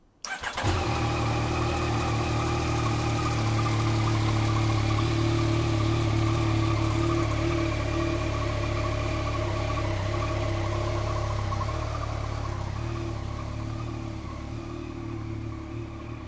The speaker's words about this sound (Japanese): 続いては、えー、アイドリングの儀式に入ります今バッテリーをつなました